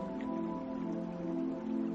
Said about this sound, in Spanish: La tormenta ha llegado hasta allí. La lluvia golpea con fuerza el techo y las paredes.